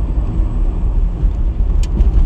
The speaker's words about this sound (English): oh god, I just got stuck behind a very slow-moving truck. Holy shoot, he's going five miles an. Are you serious? I am practically on zero driving after this guy. Oh my god, he's going less than 20 and he's braking. Why are you braking, sir?